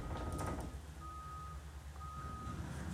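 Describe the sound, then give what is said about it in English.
A construction vehicle's reversing alarm beeps steadily, several long even tones repeating about once a second over a low rumbling engine, during construction work at a house. “And uh, sorry if there's any background noise. There's a lot of construction going on in my house.”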